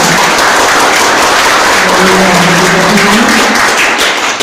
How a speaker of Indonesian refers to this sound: Beri tepukan bagi Tuhan.